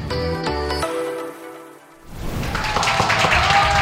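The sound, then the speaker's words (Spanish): A short harmonic musical chord rings and fades, then after a brief lull a dense, steady burst of crowd applause for a doctor rises and continues loudly to the end. “aplausos para el doctor Pepe Bandera.”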